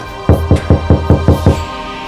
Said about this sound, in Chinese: 这大概就是四零四号房了。泰森连忙走到那扇门前，用力敲了敲门，